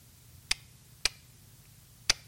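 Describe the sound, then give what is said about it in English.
Three crisp clicks made with the mouth, imitating a ticking clock. The first two come about half a second apart, then a longer pause before the third, over a faint low hum. “That's how many ticks away I am from that.”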